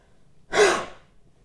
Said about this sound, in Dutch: wat je feitelijk doet is nog steeds heel hard hoesten, maar dan met je stembanden op de openstand. Oftewel, je denkt aan een H en dan ga je hoesten. Net zo krachtig. En alles wat los moet komen, krijg je meestal op deze manier ook weg. Zo klinkt het.